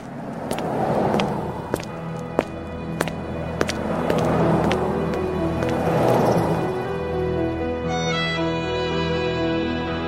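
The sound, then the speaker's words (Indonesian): A car engine rumbles steadily as the vehicle pulls away, its driver fleeing after grazing a pedestrian, with scattered sharp clicks over the noise and a rising whine toward the end; no voices. “Jangan kabur! Hah, sopir tidak tanggung jawab.”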